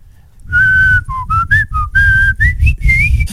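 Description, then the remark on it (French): A person whistles a short, bright morning coffee commercial jingle for Folgers, clear, in a string of rising and falling notes with brief pauses between phrases, over a low background rumble. “Hein, vous la connaissez, la toune du matin?”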